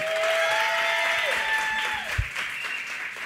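An audience claps in a dense, steady burst of applause that fills the whole clip, with a few high whistles or tones sliding through it and a brief low thump near the end.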